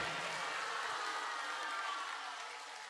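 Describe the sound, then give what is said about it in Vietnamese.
A large audience at a Buddhist gathering applauds their teacher loudly, with dense, sustained clapping that fills the whole stretch, holding steady before easing slightly near the end. Nobody speaks over it. “vậy chúng ta cho một tràng pháo tay thật lớn nữa mà đưa tay cao lên tay ra đâu tay ra một tràng vỗ tay thật lớn và thật dài cho thầy chúng ta nha”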